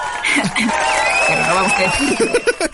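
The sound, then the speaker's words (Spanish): Applause from a crowd fills the whole stretch, a steady loud patter mixed with cheering, chuckles and overlapping voices, with a few brief louder bursts toward the end. “aplausos, aplausos.”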